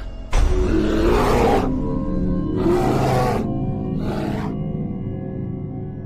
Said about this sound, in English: It's a grizzly. Should we get out of here? No. We're going to watch and listen.